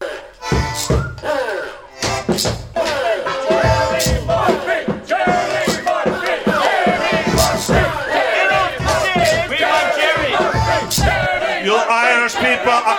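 A loud crowd cheers and yells at a live poetry performance in a rare historic recording, with many overlapping voices whooping and shouting continuously, and a few sharp thumping hits near the start.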